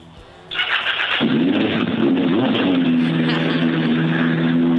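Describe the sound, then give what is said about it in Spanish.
A Suzuki Bandit 1200 motorcycle engine cranks with a brief starter whir, catches about a second in, and settles into a loud, steady idle rumble with no talking. “Ahí arranqué la moto.”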